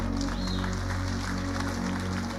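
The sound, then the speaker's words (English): A crowd claps steadily throughout for a woman introduced as the speaker's wife's sister, a dense patter of many hands at moderate volume over a low hum, with no clear voices standing out. “See, you clap up, okay”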